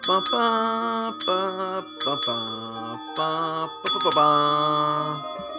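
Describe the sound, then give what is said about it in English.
A small desk bell dinged over and over in an uneven, tune-like rhythm, each bright ring sustaining briefly before the next strike. Fairly loud, with no voices. “What if we use the dinger to play the wedding march?”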